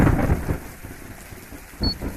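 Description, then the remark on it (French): Steady rain hisses in Kinshasa on 30 October 1974 while low rolls of thunder rumble, strongest at the start and again near the end, with no voices present. “30 octobre 1974, à Kinshasa, Zizi Kabongo rentrait chez lui sous la pluie.”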